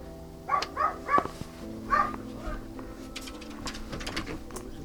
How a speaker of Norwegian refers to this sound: Her nå er vi på Nordstrand igjen. og sto utenfor huset til Tom Egeland. Jeg hører bikkja hans her. Skal ringe på. Han har jo en liten eh, puddel.